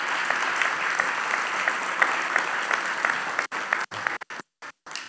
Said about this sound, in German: ihr dürft einen herzlichen Applaus geben.